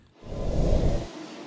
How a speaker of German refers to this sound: Zurück am Bahnhof in Tettnang warte ich jetzt auf den Zug und habe kurz Zeit, dieses Gespräch zu reflektieren.